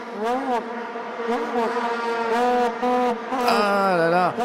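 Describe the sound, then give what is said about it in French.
Loud vuvuzela horns in B flat drone continuously in a stadium during a football match at the 2010 World Cup in South Africa, several overlapping blasts forming a dense, buzzing, brassy wall of sound with slight rises and dips in pitch, no pauses throughout. “une sorte euh, d'immense son de trompette, un son de trompette en si bémol, pour être précis, qui Casser les oreilles du monde entier.”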